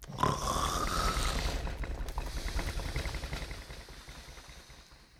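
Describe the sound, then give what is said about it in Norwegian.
Deep, rumbling snoring of a giant nodding off, loud, until the whole house shakes. It rattles on continuously for about five seconds with a coarse, vibrating texture before gradually fading down. No one speaks. “Og da begynte risen å nikke med hodet og å snorke til hele huset ristet.”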